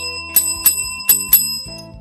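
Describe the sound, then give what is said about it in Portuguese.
A bright notification bell rings four times in quick, fairly even succession, each strike sharp and clear with a shimmering metallic ring that lingers over a soft tonal backdrop; no one speaks. “Também ativa o sininho para receber todas as notificações.”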